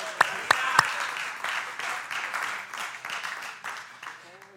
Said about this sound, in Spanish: Dele palmas al Señor, a su nombre.